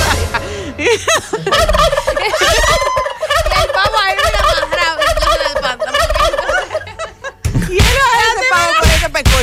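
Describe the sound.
A turkey gobbles in rapid, warbling bursts that run almost continuously, loud, with a brief pause before another burst near the end and a bit of laughter mixed in.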